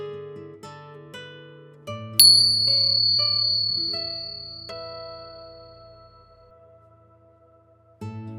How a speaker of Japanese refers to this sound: リラックスできる鐘の音を聞いていただいてからスタートです。